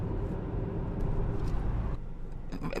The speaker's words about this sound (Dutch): Verkeer.